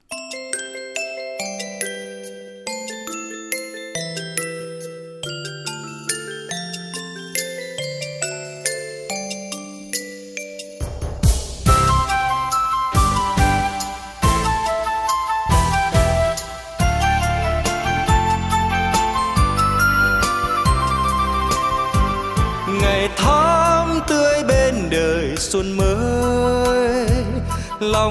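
An instrumental song intro opens with a delicate, chiming melody of bell-like tones, then swells into a full, loud band arrangement with steady rhythm. No voices are heard.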